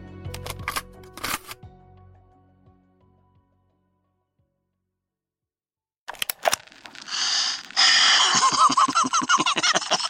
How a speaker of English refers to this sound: I placed the cassette into the player.